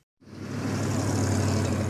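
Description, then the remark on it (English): Heavy rush hour road traffic fades in after a brief silence, a steady, loud wash of engine rumble and tire noise from many vehicles with no talking. “That's the sound of rush hour.”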